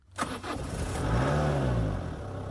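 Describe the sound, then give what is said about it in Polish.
A car engine is started with the ignition key in hard frost: it cranks briefly, then catches and roars to life, revving up and settling into a steady running rumble. No voices are heard. “Potem kluczyk, przekręcać, stacyjka i powoli włączam silnik.”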